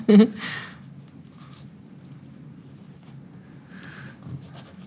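Scratchy strokes of a pen on paper come in a few short bursts with pauses between, as someone writes freely on a page while unable to see, over a low steady background rumble.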